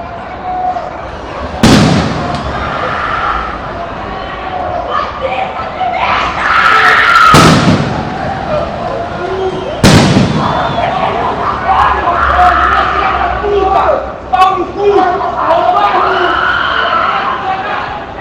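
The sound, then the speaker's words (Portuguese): A dense street crowd at the Porto Alegre Carnival, recorded in the early hours between Sunday and Monday of carnival, shouts and chatters continuously while three sharp firecracker bangs burst out at irregular moments, each a loud crack cutting through the steady roar of voices. “gravado ontem, na madrugada de domingo para segunda, de carnaval, a gente quer trazer então algumas propostas para conversar com a Andrea, que são sons de bombas e tal, a gente gritando com a Andrea.”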